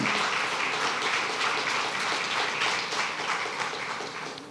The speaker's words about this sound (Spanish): Si tú lo crees, dale fuerte el aplauso al Rey de Reyes.